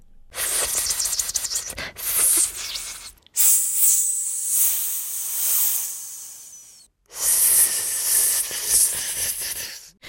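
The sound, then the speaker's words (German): A snake hisses in long, breathy bursts, three sustained hisses separated by brief silences, fairly loud with no other sounds around them. “Auf dem farbenfrohen Bild ist eine züngelnde Schlange abgebildet.”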